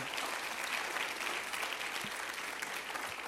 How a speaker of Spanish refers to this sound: Amén, amado. Apláudele ahora sí al Señor con todo tu corazón.